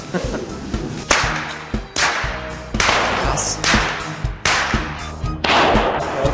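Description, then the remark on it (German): A steady series of loud, sharp Goaßl whip cracks, a Rupertiwinkel custom for driving out winter and evil spirits, roughly one every half second to second, each a bright snapping burst trailing off into a noisy tail, with no talking. “Mit den Gorseln war halt das Arbeitsgerät und mit den Gorseln haben die Ruperti Winkler äh, den Winter vertrieben.”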